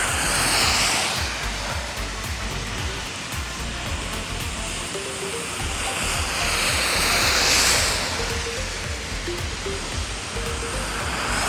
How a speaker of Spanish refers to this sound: Vamos a esperar ese carro que dé la vuelta.